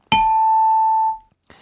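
A bright bell-like correct-answer chime rings out as one clear struck tone, holding for about a second before fading away on its own, followed by a short soft rustle.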